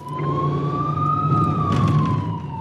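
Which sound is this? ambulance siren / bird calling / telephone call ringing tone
ambulance siren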